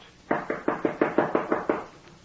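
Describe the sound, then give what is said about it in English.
Eight quick, evenly spaced knocks on a door by the maid ring out in a steady rhythm, clear, with no voices over them. “That's the maid, you see.”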